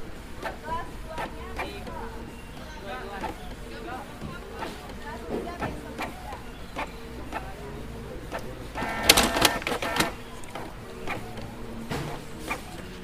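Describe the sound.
A desktop printer works close by, its mechanism creaking and clicking in a steady rhythm, with a louder burst of grinding midway as a page feeds, over faint background voices.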